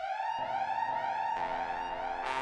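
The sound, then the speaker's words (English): A loud alarm siren blares continuously, holding a piercing, steady high tone with buzzy overtones and faint rising sweeps, with no voices over it. “So I went ahead and rang the alarm.”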